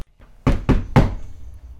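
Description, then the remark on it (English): Three firm knocks on a wooden door in quick, even succession, fairly loud, with a quiet room tone lingering afterward. “All right, come in.”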